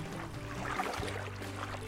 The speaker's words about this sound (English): Simon and Andrew pushed the boat back into the deep water